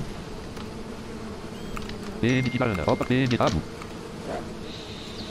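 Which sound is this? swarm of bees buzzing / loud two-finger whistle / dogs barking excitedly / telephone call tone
swarm of bees buzzing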